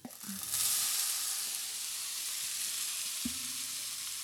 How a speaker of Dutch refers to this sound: Dus heel kort koken en meteen in een hete, hete pan met boter.